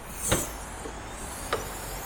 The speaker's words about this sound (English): Closing doors.